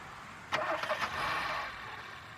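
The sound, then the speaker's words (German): A car engine cranks with a few quick sputtering bursts, catches, and settles into a steady running hum that eases off slightly as the car pulls away from a rest area on the A61 motorway toward Erftstadt, with no voices. “Ja, da fährt er, da fährt er wieder los”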